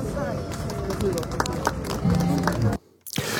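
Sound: applause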